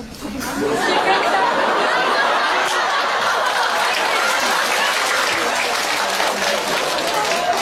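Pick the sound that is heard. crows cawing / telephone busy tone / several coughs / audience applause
audience applause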